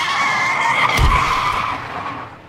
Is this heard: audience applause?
no